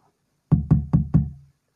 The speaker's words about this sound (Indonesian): Dan saya mengentuk-entuk pintu.